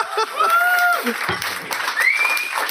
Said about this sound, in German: Ist es wohl Zeit für eine Abstimmung per Applaus? Nein, nein, nein, nein. Kein Applaus. Applaus.